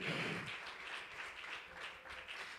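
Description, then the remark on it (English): An audience claps their hands together as a hand clap of praise to the Lord, a dense, steady wash of many overlapping claps that holds at an even level for a couple of seconds with no voices on top. “Would you give the Lord one more hand clap of praise tonight?”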